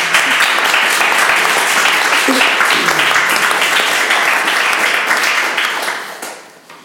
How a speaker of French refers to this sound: Merci. Bon, on peut déjà les applaudir.